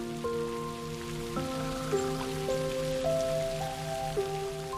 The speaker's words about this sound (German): und ihr könnt sogar hinausschauen in den Regen.